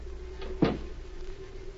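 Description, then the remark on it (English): A single solid thump of a door shutting, short and fairly loud, with a faint steady hum and quiet room noise around it and no one speaking. “Close the door.”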